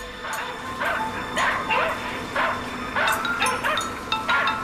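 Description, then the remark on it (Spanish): A dog barks again and again in quick, uneven bursts, sharp yipping barks at moderate loudness over a steady background hum, with no one talking; the Soviet space dogs Belka and Strelka, launched aboard an R-7 rocket, in orbit. “Y Belka y Estrelka pronto se hallan en órbita.”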